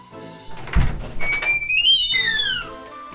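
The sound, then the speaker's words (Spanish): A door creaks open with a long, squealing glide that rises and falls in pitch, preceded by a dull thump. It's clear, with no talking. “La puerta se abrió y entró.”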